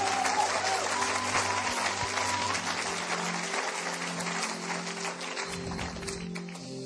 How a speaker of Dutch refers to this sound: Want to give them a round of applause. Geweldig. Geef ze een applaus.